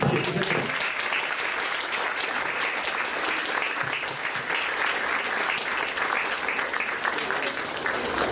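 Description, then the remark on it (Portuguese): An audience claps steadily and loudly throughout to welcome the day's guests, a dense, sustained wash of many hands, with no pauses and no voices standing out. “Então eu quero chamar para um afetuoso aplauso de vocês os nossos convidados de hoje”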